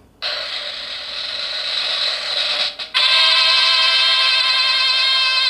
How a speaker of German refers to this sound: mit einem Trommelwirbel plus anschließendem nicht karnevalistischen Tusch.